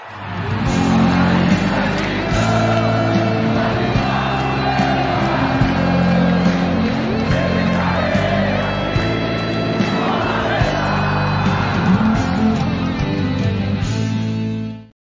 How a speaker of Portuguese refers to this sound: Então vou Logo, não perdendo tempo, vou chamar a vinheta para a gente começar e dar boas-vindas a esse convidado que já chega aqui na live do GT pegando fogo, menino.